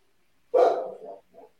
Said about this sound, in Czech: Kdo tam má psa? Náš pes.